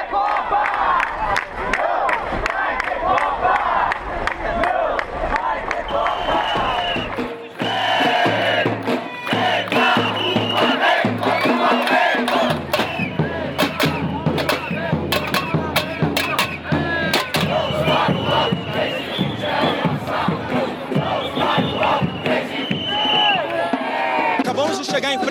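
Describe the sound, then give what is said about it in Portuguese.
A large protest crowd chants and shouts together at the Teatro Municipal, where a demonstration against a bus fare increase begins: a loud, dense roar of many voices with rhythmic bursts and sharp claps or bangs scattered throughout, continuing steadily without pause. “ao Teatro Municipal, onde vai começar a manifestação contra o aumento da tarifa de ônibus.”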